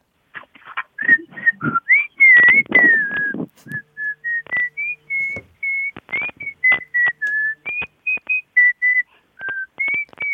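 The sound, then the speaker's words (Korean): A person performs by whistling a lively melody, with clear pitched notes gliding up and down in quick, rhythmic phrases, some staccato and some sustained, with no talking. “자, 그러면 제일 자신 있는 휘파람 하나 마지막으로 들어볼게요.”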